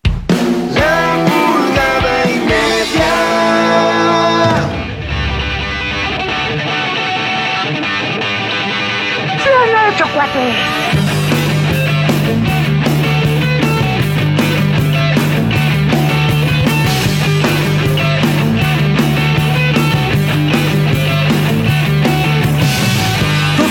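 A song plays loudly and alone, opening with sustained melodic tones before a steady, driving beat with a strong bass line kicks in and carries through to the end.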